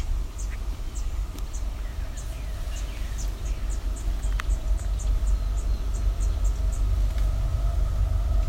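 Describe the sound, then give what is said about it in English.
A deep, steady rumble of an approaching train fills the low end and slowly grows louder, while a rapid series of thin, high chirps repeats above it. “I think these might be young towhee, but we also got a train coming, so it's gonna be loud.”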